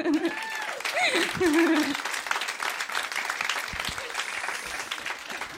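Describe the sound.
An audience breaks into steady, dense applause lasting several seconds, with a few raised voices and whoops rising over the clapping near the start before it settles into an even patter.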